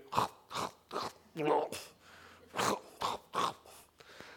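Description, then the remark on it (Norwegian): A voice mimics a cow chewing its cud, with a run of about eight short, wet, crunchy mouth bursts in a steady rhythm, moderately loud, with a few breathy grunts mixed in. “Så hver dag så tygger du ned Guds ord, og hver dag gulper du det opp igjen. Og tygger på det igjen.”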